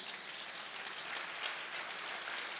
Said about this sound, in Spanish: Alguien déle un aplauso a Jesús.